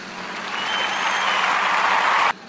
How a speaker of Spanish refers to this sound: Suficiente, no aplaudan tanto, muchas gracias.